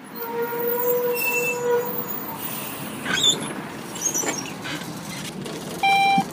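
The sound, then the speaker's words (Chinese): Route 49 city bus in Zhenjiang, Jiangsu, China, running from Jinquan Garden stop to the hub station. It rolls along with a steady, loud rumble, with thin whining motor tones drifting up and down and a few brief rattling clunks midway. No one speaks. “在江苏镇江，有这么一趟公交车，四十九路，从金泉花园公交站到公交江大枢纽站，途经镇江新二十四景中的十六景，可谓是镇江风景最美的公交线。”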